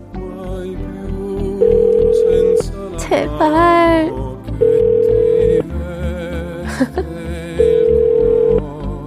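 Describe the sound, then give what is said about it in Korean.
A phone ringback tone sounds three times, each a steady one-second burst repeating every few seconds, over soft background music, with a person briefly speaking and laughing in between: a call placed live on a Korean radio show to the host's close friend a friend. “자, 누구한테 전화를 걸어볼까 하다가, 그래.”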